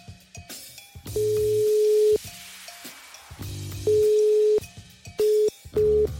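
A steady electronic telephone tone pulses on and off over a line as a call rings before going to voicemail, first a longer ring, then shorter, quicker bursts toward the end, with no voices.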